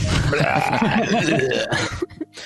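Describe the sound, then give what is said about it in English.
A person vocally imitates loud, retching vomiting for about two seconds, a gurgling, heaving burst of noise that trails off into a couple of short sputters. “there's a sound of profuse vomiting.”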